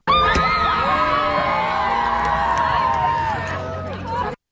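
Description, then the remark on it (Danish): The winning team of the Danish women's football championship cheering and shrieking in celebration, a dense, high-pitched wall of overlapping joyful screams and whoops that stays loud and sustained for several seconds before cutting off. “lige den her glædesros, det er altså fra vinderne af DM i kvindefodbold”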